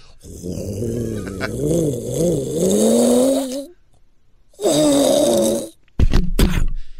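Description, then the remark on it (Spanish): A gray special-edition Lamborghini Huracán Performance accelerates loudly on a street, its engine rising in a growling whine for several seconds, pausing, then surging again before two short, sharp throttle blips. “acelera con un Lamborghini Huracán Performance”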